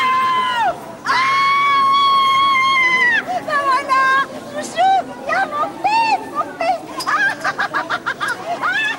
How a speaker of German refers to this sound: Einer von ihnen ein Bubi von Geschäftsmann, offenbar nach seiner ersten Dienstreise, wird schon von weitem mit lautem Freudengeschrei von seiner Mutter begrüßt. Ah! Ah!